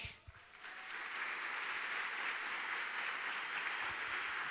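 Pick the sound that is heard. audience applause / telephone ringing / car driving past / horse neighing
audience applause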